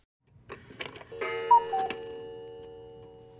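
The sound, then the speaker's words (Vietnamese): A clock ticks a few times, clear, then strikes one o'clock in the morning with a single ringing chime that hums on, slowly fading away with no one speaking. “Khi đồng hồ điểm một giờ sáng”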